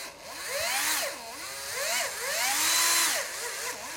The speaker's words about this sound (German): das nächste Gerät ein Akkuschrauber. Und dann hat man hier so eine Art Abzug, wie bei einer Kanone, dass man dann quasi draufdrückt.